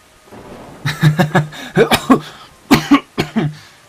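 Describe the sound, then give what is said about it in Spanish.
A man coughs in a harsh, hacking fit, about ten rough bursts grouped in three rapid clusters with brief pauses between, loud with a throaty, voiced edge. “Se escucha la risa del hombre y otro ataque de tos.”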